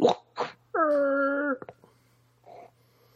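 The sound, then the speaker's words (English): A voice imitates the gory squishing of an off-camera slasher-movie kill: two breathy bursts, a drawn-out gurgling groan, quick wet clicks, then a faint trailing squelch, all fairly loud. “You're just going to hear noises. like squishy noises?”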